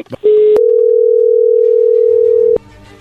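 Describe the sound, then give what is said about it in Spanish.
A telephone line tone as a call is dialed: a short beep, then a loud, steady, unbroken tone holding for about two seconds before cutting off abruptly, with faint voices or line noise after. “vamos a llamarle en este momento, no haga ruido, por favor, ahí se está marcando.”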